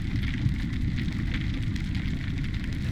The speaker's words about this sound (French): J'ai entendu, j'ai entendu des crevettes qui claquent.